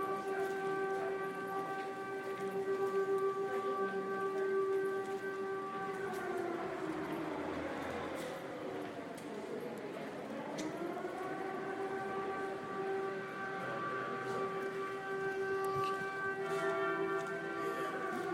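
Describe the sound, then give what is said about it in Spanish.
A civil defense siren in Paris, sounded every Wednesday at noon, wails steadily and loudly for the whole stretch, its pitch sagging low midway before climbing back up to a sustained tone. No one speaks. “Todos los miércoles a las 12 del día en París suena esta sirena.”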